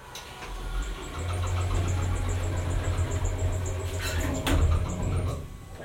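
elevator running

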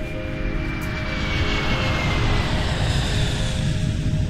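airplane engine in flight

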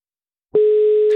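telephone call tone

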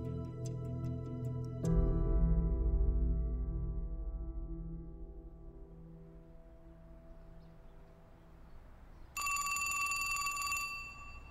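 old telephone bell ringing

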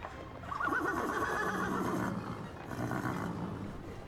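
horse neighing

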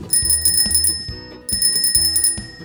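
bicycle bell ringing

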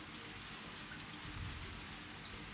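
rain falling

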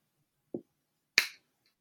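finger snap

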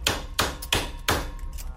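hammering

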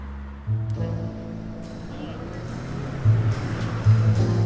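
street traffic

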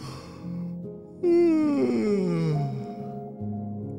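yawn

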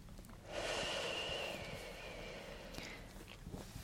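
deep breath in

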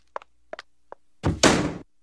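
door slamming shut

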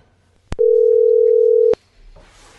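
phone call dialing tone

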